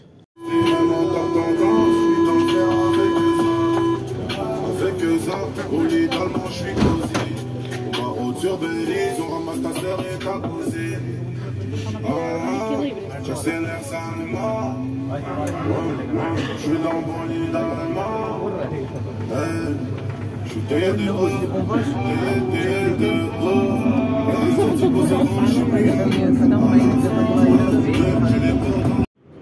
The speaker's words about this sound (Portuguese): O áudio que vão ouvir a seguir é a experiência de um gona a ouvir música a altos berros no metro. Se pensam que é só em Portugal, não. Surpreendam-se. Em Paris também.